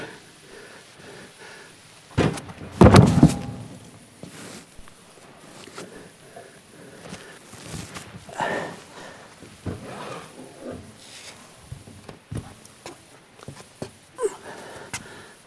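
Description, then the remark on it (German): A horse-drawn carriage halting, with a loud horse snort early on, then shuffling hooves and scattered knocks and clatter, like a carriage door, with no one speaking. “ließ den Wagen halten und stieß mich hinaus.”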